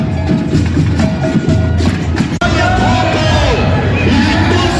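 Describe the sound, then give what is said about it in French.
A dense, loud crowd of a protest march, its procession just setting off at almost 4 pm, fills the scene with shouts and cheering voices, while batucada drumming pounds steadily underneath the constant roar. “nous voilà maintenant avec des batucadas, une ambiance de feu et beaucoup, beaucoup, beaucoup de monde.”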